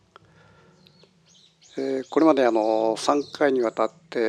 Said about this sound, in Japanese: 今日の録音は、え暴走の家のベランダのちょっと小さな小屋でやってるもんですから、えー、風の音とか鳥の声とかちょっとうるさいかもしれません。